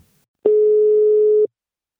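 A single steady telephone ringback tone sounds once for about a second, clear, like a call ringing through on the line to the CEO of Invacare, with silence before and after.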